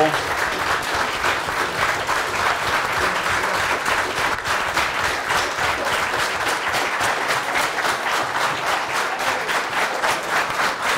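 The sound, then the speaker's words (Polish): Sustained, loud applause from a crowd, a dense steady patter of many hands clapping without pause, with occasional faint voices mixed underneath. “Wielkie brawo.”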